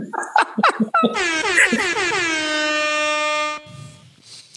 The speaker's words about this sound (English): Where's the air horn?